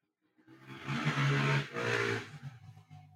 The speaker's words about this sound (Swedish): En motorcyklist eh, glider in i studion.